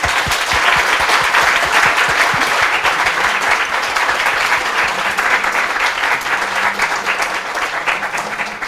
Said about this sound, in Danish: Og med de ord, så øh, synes jeg, at vi lige først og fremmest klapper af panelet og siger tusind tak til dem.